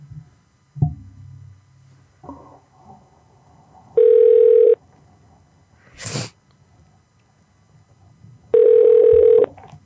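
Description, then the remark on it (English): A phone line rings out twice as a prank call is placed to a barber shop: two long steady electronic ring tones spaced a few seconds apart, preceded by faint clicks and button noises, with a brief noisy burst between rings. “Let's make some prank calls.”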